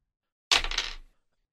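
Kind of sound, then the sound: four dice being rolled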